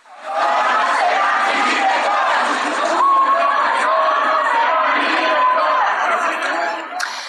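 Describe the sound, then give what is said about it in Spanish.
Members of the CIDE student assembly protesting at CONACIT chant the slogan "un opresor no será mi director" in unison, loud and sustained for several seconds, with a steady rhythmic cadence of many voices shouting together. “Acudieron hasta el CONACIT, donde despacha a Álvarez Bulla, al grito de un opresor no será mi director.”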